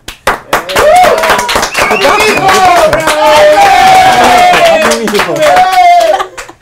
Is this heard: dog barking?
no